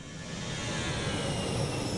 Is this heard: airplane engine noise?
yes